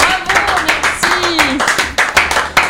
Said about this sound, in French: On applaudit